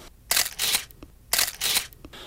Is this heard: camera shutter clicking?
yes